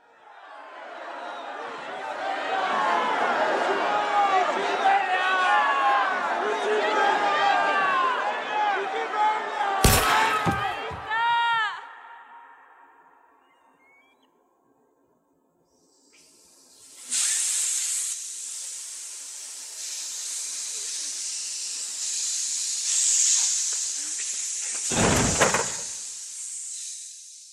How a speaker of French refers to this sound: finalement une scène qui est aussi intéressante sur la rupture sonore. Vous allez écouter sur la foule qui se tait et qui ensuite se met à manifester son, son mécontentement de manière très particulière. On écoute cet extrait.